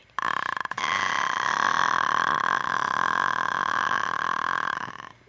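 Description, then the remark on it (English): A sustained, throaty vocal sound held for about five seconds, steady and fairly loud, a rough guttural drone made deep in the throat as a vocal warm-up that relaxes the throat muscles, with no talking. “Okay, so this this is a warm up where it like relaxes your throat muscles and you kind of like kind of have to listen.”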